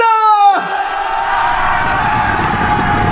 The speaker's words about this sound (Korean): 이걸 불멸의 이순신 나오는 건데 이거는 예. 태조 왕건에서 쓰는 그러네 소리죠 이거는 네. 네, 전쟁 날 때인데 누구냐 누가 이렇게 소리를 크게 지르고 기침을 하는 게야 그건데요